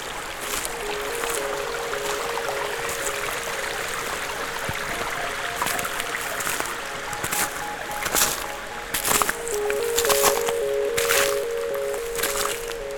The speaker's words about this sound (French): Des ruisselets la forêt et sa parure hivernale vous accueille.